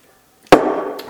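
Glasses clink together in a toast, one bright, sharp strike that keeps ringing with a sustained tone, followed by a fainter second tap. No one speaks.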